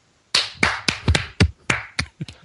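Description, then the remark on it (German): A single person in Frankfurt claps their hands about ten times in quick, slightly uneven succession, each clap sharp and fairly loud, following a brief moment of silence. “Applaus von hier aus Frankfurt nach Köln.”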